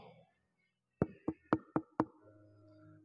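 A quick series of five firm, fairly loud knocks on a door, rapping in a brisk, slightly uneven rhythm before fading into a low murmur.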